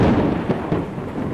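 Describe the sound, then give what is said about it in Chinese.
A loud, booming thunderclap outside a window, with a heavy low rumble that fills the whole clip, with a couple of sharper cracks partway through and no voices. “猛然间，窗外的一声炸雷响起”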